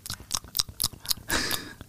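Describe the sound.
A doctor imitates a leech's wet smacking noises close to a patient's ear: a quick irregular series of close, moist mouth clicks and slurps, ending in a longer squelchy smack, with no speech.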